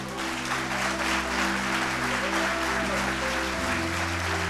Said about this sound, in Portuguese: Você pode aplaudir o Senhor aqui nessa noite?